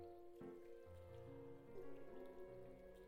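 Soft, steady rain patters in the background beneath gentle sustained musical tones, a quiet continuous wash with no voices present.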